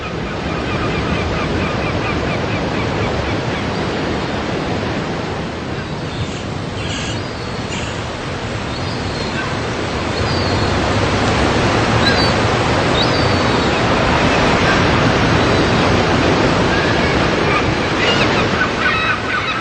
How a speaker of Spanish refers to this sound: Y si te acercas a él y cierras los ojos, no solamente vas a poder oler al mar, sino que también vas a poder escucharlo. Tú que estás lejos, ¿lo escuchas? ¿Lo puedes escuchar?